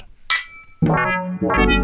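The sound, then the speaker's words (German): A single bright clink of wine glasses touching in a toast, its high ring lingering briefly before louder music begins. “Dafür gibt es viele, viele Weinromane und jetzt müssen wir doch noch einmal anstoßen.”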